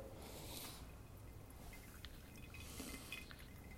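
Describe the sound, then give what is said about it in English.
Hot water pours steadily over coffee grounds for a pour-over brew, another 50 grams added after 25 seconds, in a soft, continuous trickle lasting a few seconds, with faint splashy drips and no talking. “But here, so after 25 seconds, I'm pouring another 50 grams.”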